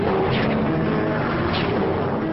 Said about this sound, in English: The helicopter takes off again, bullets flying all around it